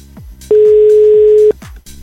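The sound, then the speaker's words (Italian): A single ringing tone of an outgoing phone call, a steady, loud mid-pitched beep lasting about a second, sounding over quieter background music. “Sentiamo se risponde.”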